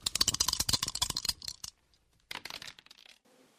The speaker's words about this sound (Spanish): Estamos por llegar a la meta de este juego, pero antes vamos a lanzar los dados